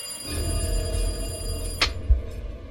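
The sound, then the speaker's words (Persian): A home telephone rings with a steady, metallic buzzing tone over a low rumble, then a sharp click and a dull thud near the end as the receiver is picked up, with no one speaking. “با هر بار زنگ تلفن انگار تمام وسایل خونه میلرزید برقای خونه ضعیف و قوی میشد دیگه آخراش حس میکردم از همه دنیا داره صدای تلفن میاد دست خودم نبود کشیده شدم به سمت تلفن و گوشی رو برداشتم”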